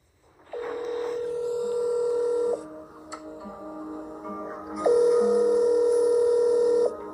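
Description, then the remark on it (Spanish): A phone line rings out with two long, steady electronic ringback tones separated by a short pause and a faint click, heard clear with no voices. “Por cierto, antes de finalizar, tengo una llamada para ti, así que te sugiero que te pongas tus audífonos o que acerques el celular a tu orejita.”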